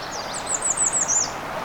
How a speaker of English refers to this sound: Well, this spot is loaded full of birds.